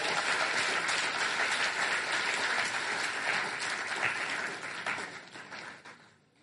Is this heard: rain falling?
no